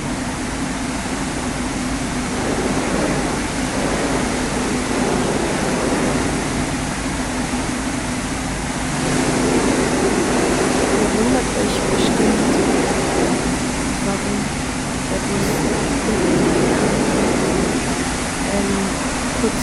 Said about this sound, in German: dann wird jetzt unser Bus gereinigt.